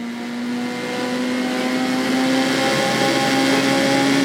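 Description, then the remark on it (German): A car engine in the racing game Forza Motorsport, heard as a demonstration of the game's accessibility support for blind players, roars continuously at a steady, high-revving pitch, holding one loud buzzing tone with layered harmonics for several seconds, with no voices. “Forza Motorsport”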